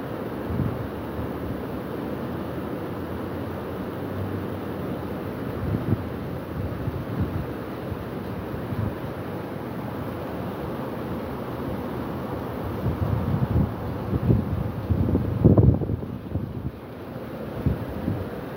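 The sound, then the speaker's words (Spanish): A steady, loud roar of rushing floodwater in the arroyo of the Tecnológico after about ten minutes of heavy rain fills the whole recording, with gusty buffeting and a brief surge near the end. “Vea cómo va el agua.”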